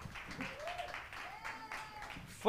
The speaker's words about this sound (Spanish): Wow, dale un fuerte, un aplauso más al Señor. Fuerte, fuerte, fuerte.